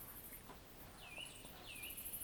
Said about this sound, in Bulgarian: това, което го чуваме в момента е нощ се спуска над Странджа. Те пеят разни птички тук, които не са чайки и гороси, което е това, най-често чуваш в града.